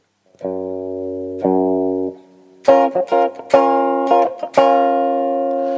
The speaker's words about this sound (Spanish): Esto es un wah automático.